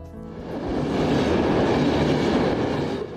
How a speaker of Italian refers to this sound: Un trenino che corre lungo la costa e non sembra più un trenino di provincia, ma una specie di metropolitana del mare. E come la metropolitana, a volte si ferma in stazioni che non sono stazioni, ma sono gallerie.